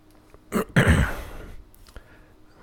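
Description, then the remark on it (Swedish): A single short, throaty burp, a gravelly low rumble lasting about a second before fading into quiet background noise. “Kändes som jag behövde rapa lite.”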